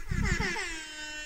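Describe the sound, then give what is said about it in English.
A single loud air horn blast, blaring and brassy with a rough, buzzy onset, then holding as a steady sustained tone that eases off slightly toward the end. No voices. “You know, he's given him the air horn a few too many times.”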